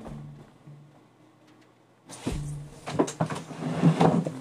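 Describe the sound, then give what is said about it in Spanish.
A door is handled, rattling the scrap metal piled behind it in a burst of loose clattering, after a couple of seconds of low hum; several sharp clanks follow in quick succession. “No suena tu puerta. No, po. no suena. pero sí toda la chatarra que tengo atrás.”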